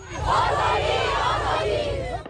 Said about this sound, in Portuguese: Bom, esse anúncio foi feito em meio a protestos pela capital do país. Tiros e gritos de desespero marcaram as manifestações nas ruas de Cabu. Em frente à embaixada do Paquistão, muitas mulheres reclamaram do apoio do país vizinho ao regime.